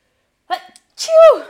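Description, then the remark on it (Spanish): A single loud sneeze: a short breathy intake followed by a sharp, explosive burst with a vocalized tail, sounding alone without any talking. “Uy, voy a estornudar.”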